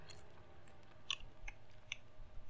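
Chewing with a few sharp crunchy bites standing out against a low, steady rumble, no one speaking.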